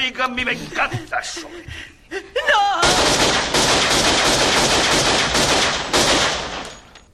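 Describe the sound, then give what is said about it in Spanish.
Sustained, dense burst of rapid gunfire in a shootout at the end of a film, loud, preceded by a couple of seconds of speech and brief sounds before the shooting erupts. “Unos buenos tiros para despedir ahí la película.”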